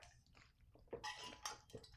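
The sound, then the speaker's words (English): Quiet mouth sounds of someone sipping water, a few wet slurps and gulps over about two seconds, with no talking. “We just need a sip of water.”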